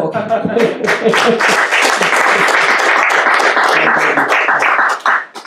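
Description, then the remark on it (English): An audience breaks into sustained applause for a speaker after a talk, a dense, steady patter of many hands clapping for about five seconds before it fades, with a few voices mixed in. “Can we just applaud you for that wonderful talk, first?”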